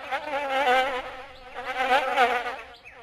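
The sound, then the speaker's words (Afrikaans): A soft, steady insect buzz among a tree's branches drones on, its pitch wavering slightly as the wingbeats swell louder and fade back, like a fly or mosquito circling, with no voices present. “Terwyl Mani Mier en Trikkie Dassie nog so lui-lui met mekaar lê en gesels, is daar 'n sagte, zoemerige geluid tussen die boom se takke.”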